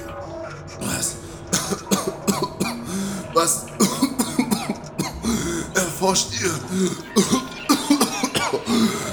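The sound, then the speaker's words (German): A man speaks and breaks into a few rough coughs as he sits up in an underground laboratory, short harsh bursts mixed in with his talking, with a hint of throat clearing. “Hustet Toni, als er sich aufsetzt und die anderen Schlafenden begutachtet”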